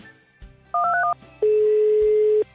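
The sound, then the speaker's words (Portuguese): A quick run of about four dual-tone mobile phone dialing beeps as a call is placed to a teacher's mobile phone, followed by one long, steady tone lasting about a second. Clear, with no voices. “vou ligar aqui no celular dela, porque ainda estamos na pandemia e infelizmente não posso encontrar com ela para gravar.”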